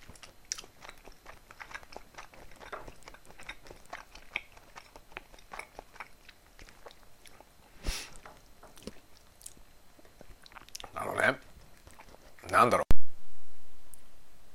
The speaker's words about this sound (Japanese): 餅は咀嚼するのに時間かかるねだからいつもより話が途切れがちですよねちょっと食べてちょっと話すみたいな感じでいつもやってるけどさこのひとたび口に入れたら結構噛まないといけないからなかなか大変だこれ。